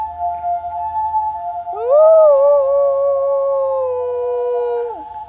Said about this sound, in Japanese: 家の前の雪山の上で中堅八甲のように銅像のように番犬するというのが藤一郎くんの最近の日課になってます涼しい顔をして雪の上ではいはい遠吠え入りました